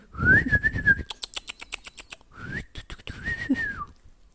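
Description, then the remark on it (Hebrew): A parrot-like call, most likely imitated by a person, as a parrot answering a question: a high sustained whistle, then a quick burst of sharp chattering clicks, then another long warbling whistle, fairly loud. “ומיד התוכי ענה לו,”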